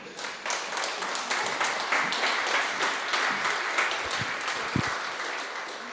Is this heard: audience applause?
yes